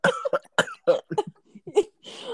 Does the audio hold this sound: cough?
yes